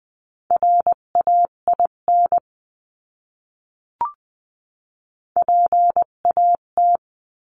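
Morse code beeps in a steady mid-pitched tone sending a word at 16-20 words per minute, keyed as quick dots and longer dashes in two bursts separated by a pause, with a single faint click in between. No one speaks.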